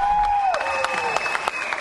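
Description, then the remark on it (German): Audience applause with scattered, irregular claps, accompanied by a sustained whistle-like tone that slides downward in pitch before leveling off. “Applaus dafür!”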